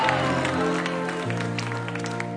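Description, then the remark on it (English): A church audience claps steadily for a man being blessed, in a dense, continuous patter, layered over sustained keyboard chords that shift to a lower note partway through. “Clap your hands for him.”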